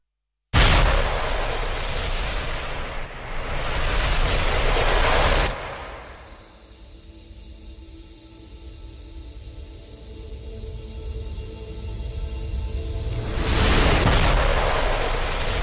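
Ambient forest soundscape music, the soundtrack of a dance piece by Jaén dancer and choreographer Mario Bermúdez: loud rushing, wind-like noise surges, falls away to a quieter stretch of faint sustained tones and hiss, then swells loudly again. No voices.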